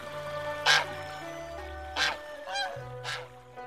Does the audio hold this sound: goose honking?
yes